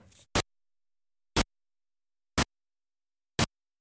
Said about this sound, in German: Das Zischen das ist abgestimmt auf den Rhythmus der Tiefschlafwelle und man sollte darum gar nicht aufwachen, sondern tiefer schlafen als sonst.